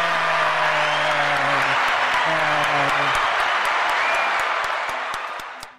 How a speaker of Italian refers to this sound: 92 minuti di applausi.